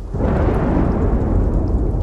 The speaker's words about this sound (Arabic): والسماء ترعد وتبرق والجو يتغير